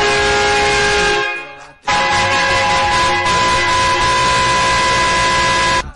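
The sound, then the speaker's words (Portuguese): A truck horn blares loudly and continuously, a harsh, steady multi-tone blast broken only by a brief gap early on before it resumes and holds to the end. No one speaks. “Segura a buzina do caminhão, menino.”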